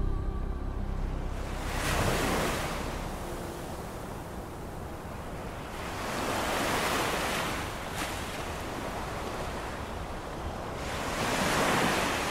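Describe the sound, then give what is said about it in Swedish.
Pacific Ocean surf off the coast of Panama on a cloudless day rolls in steady surges, three broad swells of crashing waves building and receding over a constant windy hiss, fairly loud with no voices. “Stilla havet sträcker sig ut till horisonten åt vilket håll man än tittar.”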